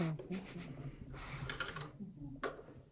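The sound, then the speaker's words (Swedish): Irregular clicks and clacks of someone typing on a computer keyboard, with bursts of rapid keystrokes and brief pauses over a low murmur of voices. “Vad är det du skriver på nu?”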